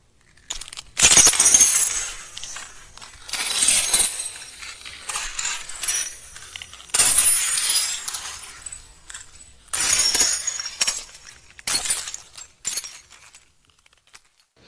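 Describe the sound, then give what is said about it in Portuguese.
Visitors' feet crunch and grind over broken glass shards in a series of loud, uneven steps, each one a sharp crackling burst with tinkling fragments, with no voices. “Ao fazerem isso, os espectadores percebem ruídos altos, produzidos pelo contato dos pés com o vidro.”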